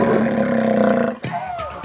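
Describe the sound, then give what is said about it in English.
A loud, sustained lion-like roar rumbles for over a second, then breaks into a couple of short, breathy snake hisses. “I'm in it, the bone growled, and it began to hiss like a snake and roar like a lion.”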